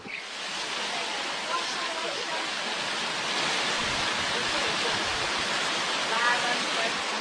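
Heavy typhoon rain and wind roar outside in Pingtung in a dense, unbroken hiss, loud and steady throughout, with faint gusting swells and no one speaking.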